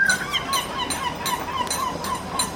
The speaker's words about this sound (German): Na, das war Alex die Möwe.